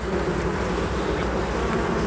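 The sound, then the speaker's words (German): A dense, steady drone of many honeybees buzzing around eleven hives, continuous, with a low humming hive tone and no voices. “Und zwar dann jetzt, da werden die Bienen abgekehrt rein, mhm.”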